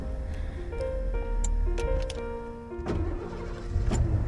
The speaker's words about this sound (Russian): Когда же Бьюик тяжело поочередно всеми колесами перевалил через трамвайное полотно и затормозил около огромного здания в европейском стиле